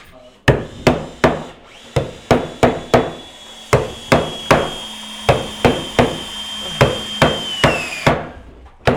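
Sharp hammer blows strike wood again and again in quick bursts of two or three, over a steady high machine whine and low hum of a busy wooden-building construction site.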